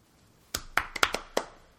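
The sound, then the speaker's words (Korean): A short burst of sharp hand claps, about six loose, uneven claps over a second instead of a tidy set of three, with quiet before and after and no talking. “박수 세 번.”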